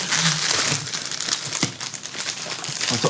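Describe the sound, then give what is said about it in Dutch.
Crinkly plastic pastry wrapper being opened, a continuous bright rustling and crackling with irregular sharper crunches throughout, fairly loud and without any talking. “Ja, oh, dus Ik maak ook echt weinig subtiel deze verpakking.”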